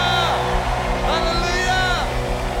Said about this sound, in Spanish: Somos libres. Aleluya. Aleluya. Que se oiga ese grito de júbilo, de victoria